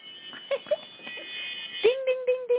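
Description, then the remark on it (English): A small electronic alarm starts up partway through, holding a steady mid-pitched tone and then pulsing in short repeated beeps. Faint, indistinct voice-like sounds come before it. “there goes my uh, little alarm, which it's a little it's a little off.”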